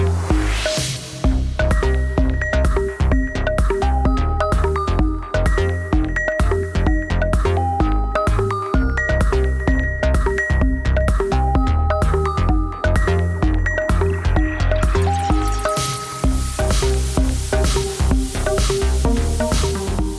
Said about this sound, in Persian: این تدوین زیبا و این موزیک های باحالی که میشنوین کار ایشونه